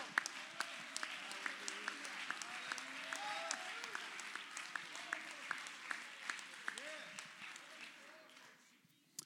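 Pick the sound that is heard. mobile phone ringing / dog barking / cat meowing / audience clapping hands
audience clapping hands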